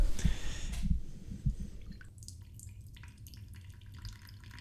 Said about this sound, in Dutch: De bedoeling is dat die dan wordt aangelengd met het kokende water. Aan de kook gebracht door de kolen.